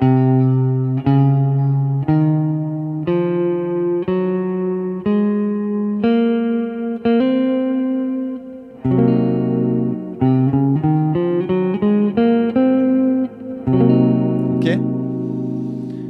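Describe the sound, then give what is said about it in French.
An electric guitar plays a half-diminished chord followed by a Locrian scale, the mode built on the seventh degree of the major scale. The notes ring clearly and evenly, about one per second, then quicker phrases near the end. Loud, no talking. “Ok D'accord Donc, je vous, je conseille de bien écouter l'accord et après de bien écouter les intervalles qui composent le mode.”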